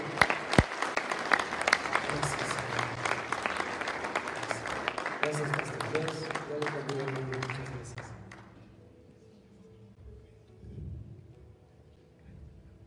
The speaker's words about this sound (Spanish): ¿Por qué no le damos un fuerte aplauso a Cristo?